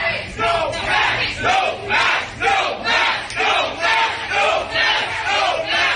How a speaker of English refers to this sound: In case you can't understand what they're saying, they are saying no mask, no mask. They've had enough.